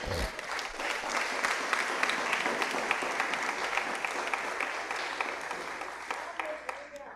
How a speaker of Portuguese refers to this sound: Estou alegre nessa noite, dando a salva de palmas para Jesus.